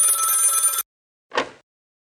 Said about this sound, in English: It's Queenie calling me from the radio station. Let's turn the volume back down and answer the phone.